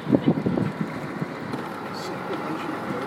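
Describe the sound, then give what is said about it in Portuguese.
Steady wind buffeting and a low engine rumble from a moving sightseeing boat in Stockholm, with a brief burst of talking at the start before the broad whooshing noise carries on. “Estamos entrando no barco para passearmos por Estocolmo.”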